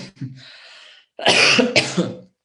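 A soft breathy exhale, a brief pause, then one loud, rasping throat clearing that rumbles for about a second before stopping abruptly. No speech.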